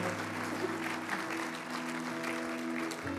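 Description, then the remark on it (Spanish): Loud, steady applause from a church audience for the Lord, the King of Glory, a dense wash of clapping that fills the whole stretch, with a sustained organ-like musical tone holding underneath. “El aplauso fuerte al Rey de Gloria, por favor.”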